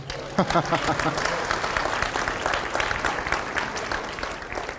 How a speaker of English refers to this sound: All right. You guys should clap or something so it's not weird.